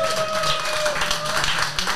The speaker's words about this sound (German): Das ist übrigens der Applaus, weil du sie wieder aufhast.